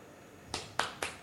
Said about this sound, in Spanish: Y llega un momento en el que sacas el número en el que le ha tocado a uno, pero no le ha tocado al resto. Y ese es el aplauso. Ese es el aplauso desganado, ese es este aplauso.